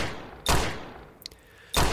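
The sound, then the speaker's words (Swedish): Shots from a Glock 20 SF pistol ring out, two loud, sharp blasts over a second apart with a faint small crack between them, each leaving a brief reverberant tail, with no voices. Four shots are fired at a woman lying in bed, a little before half past nine. “Han siktar sin pistol mot mamma Nancys huvud och avfyrar fyra skott”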